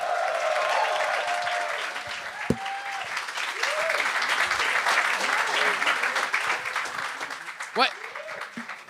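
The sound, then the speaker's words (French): Loud, sustained applause from a large crowd welcoming the first judge of a stand-up comedy competition, with cheers and whoops rising over the dense clapping throughout and a sharp shout near the end. “Faites un maximum de bruit pour Eddie King!”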